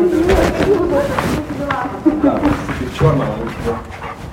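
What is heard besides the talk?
dog barking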